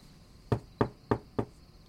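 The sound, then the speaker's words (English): Four sharp, evenly spaced knocks on a door, fairly loud, with a steady faint high hum in the background and no voices. “I'm not opening the door, so just forget it. Ugh. Okay, okay, fine. Just stop knocking.”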